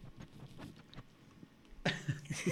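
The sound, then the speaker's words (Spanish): A Rottweiler dog named Shakira breathes in soft, rhythmic puffs, then lets out a louder burst of huffing, snorting breaths toward the end. No one speaks. “A ver, vamos a hacer silencio para ver si se escucha su respiración.”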